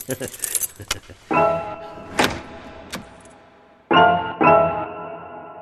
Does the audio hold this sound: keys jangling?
yes